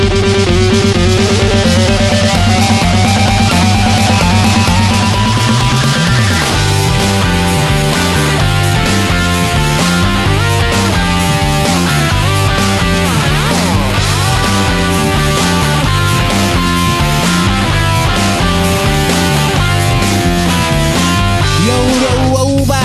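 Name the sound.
played song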